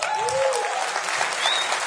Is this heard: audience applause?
yes